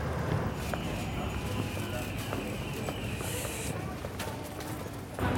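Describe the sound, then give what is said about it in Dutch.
Steady footsteps walk along a city street toward a café, a run of short, evenly spaced taps over a constant wash of outdoor traffic and city noise, fairly loud. “Ja, we moeten nog even lopen hoor.”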